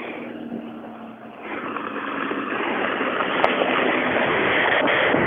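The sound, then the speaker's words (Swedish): A rally car's engine roars in a steady, broad rumble that grows gradually louder as the car arrives at the finish of stage four, with a sharp click partway through and no voices. “Vi har fått in en bil i mål, men den står lite långt borta så jag ser inte vem det kan vara.”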